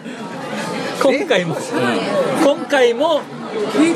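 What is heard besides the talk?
chatter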